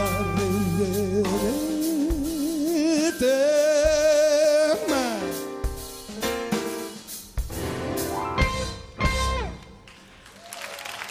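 A live recording of an Italian pop song from a 2009 tour: a singer holds wavering, vibrato-laden notes over a steady band, with bursts of crowd noise and applause woven through the music.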